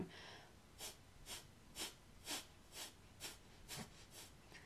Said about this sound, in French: La respiration de feu, on va, c'est l'expiration qu'on va pousser et l'inspiration est passive, c'est-à-dire que je vais pousser avec mon diaphragme pour sortir l'air et lorsque je vais relâcher, l'air entre tout seul.